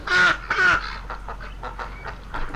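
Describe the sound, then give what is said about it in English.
Duck quacks played slowed down and backwards: two loud, harsh, drawn-out calls, then a run of fainter, evenly spaced croaking pulses with a warped, eerie tone. “Did anyone ever realize that ducks were that scary?”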